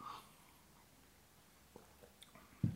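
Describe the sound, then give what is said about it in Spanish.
A quiet sip of a drink: faint wet mouth and swallowing noises, a few soft clicks, then a short low thump near the end. No one speaks. “Dejen, doy trago, porque si no me, encabrito aquí un poquito.”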